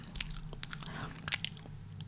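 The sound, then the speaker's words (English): A voice deliberately imitates wet mouth noises: a quick series of crisp smacks and clicky pops in an irregular rhythm, with no words spoken, demonstrating the smacking, popping sounds some presenters make when they talk. “that several of the presenters make these smacking, popping sounds when they talk.”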